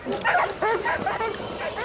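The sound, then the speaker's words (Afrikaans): A dog barks and yelps excitedly in a rapid burst of about six or seven sharp barks over steady background noise, as it goes into the water after a suspect during a training exercise with handlers and grabs his arm. “En daar gaan die hond en hy in die water in en die hond gryp hom aan die arm.”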